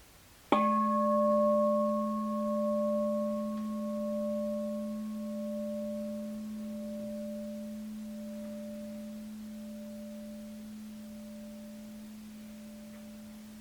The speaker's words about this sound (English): you hear the sound of the bell. You can choose whether you want to open your eyes or just experience that through the field of sound and continue listening.